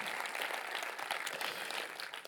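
A church crowd in Zürich Oberland applauds a guest steadily, many hands clapping in a dense, continuous wash of sound that holds its level throughout and eases slightly at the end.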